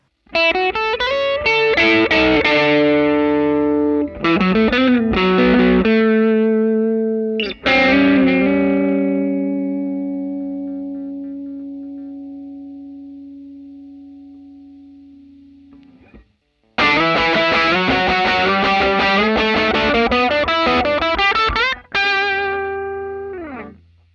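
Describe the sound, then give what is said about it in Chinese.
A distorted electric guitar plays loud, gritty chords through an overdriven vintage Silvertone amp, from a well-known budget brand that went out of business in 1974, with bursts of strummed riffs and one long sustained chord slowly fading before another crunchy flurry. “那这个在一九七四年就倒闭了的著名便宜货品牌，到底是什么声音呢？我们来听一下。”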